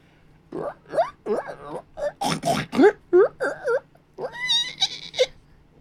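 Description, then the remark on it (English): A person voices a run of pig noises: repeated grunts, snorts and high squeals in quick, uneven bursts, ending in a few shrill, rising squeals, fairly loud. “No, those were my pig squealing noises.”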